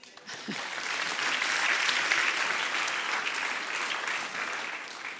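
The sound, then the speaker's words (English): A steady round of applause from many hands, a dense crackling clatter that swells quickly and holds at a fairly even level for several seconds before easing slightly toward the end. “Round of applause.”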